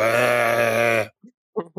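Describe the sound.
A scare actor at the Walibi Belgium theme park vocalizes a long, strained, bleating grunt in imitation of a sheep, about one second of steady harmonic voice, followed by a few short murmured sounds.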